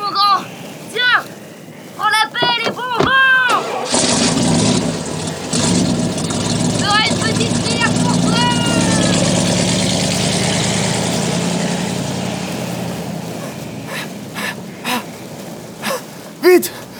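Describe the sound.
A loud, steady vehicle engine rumbles for several seconds in the desert, starting and stopping abruptly, while people talk excitedly before and over it.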